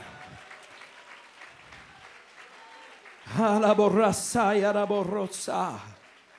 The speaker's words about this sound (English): Somebody ought to clap your hands to the Lord.